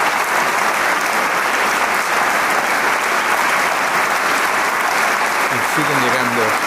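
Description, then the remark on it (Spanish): A concert audience at the Teatro Isauro Martínez in Torreón applauds a young soloist loudly and steadily after the first part of the concert as bouquets of flowers are presented. The clapping is a dense, sustained wash throughout, with a voice beginning to speak over it near the end. “más ramos, ramos de flores y aplausos a través de este escenario de, del Teatro Isauro Martínez.”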